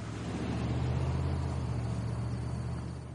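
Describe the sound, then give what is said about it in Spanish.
A heavy laundry truck's engine rumbles steadily with a deep, droning hum, holding loud before easing off slightly as it pulls away at the end. No voices. “El camión avanza.”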